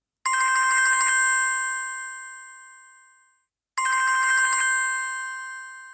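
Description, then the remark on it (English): A mobile phone ringtone rings out twice, each burst a bright electronic trill that fades slowly, separated by a short silence. Clear, with no voices. “As he was serving up Bertrand's portion, his phone rang out.”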